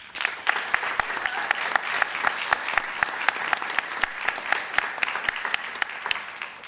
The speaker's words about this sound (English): But we're also going to take suggestions from our audience here at the Wellcome Genome Campus. Please give everyone a round of applause.